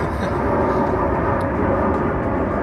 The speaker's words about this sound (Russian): Неплохо самолет летит. Да, на природе бы. В лесу. В лесу над лесом пролетал самолет.